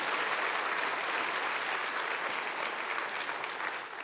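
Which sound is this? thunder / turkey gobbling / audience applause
audience applause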